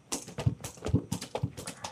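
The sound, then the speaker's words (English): A voice imitates galloping horse hooves with quick, rhythmic clip-clop clicks repeating in triplet-like bursts, fairly loud, with no other sounds around. “these horse hoofs that were coming toward him.”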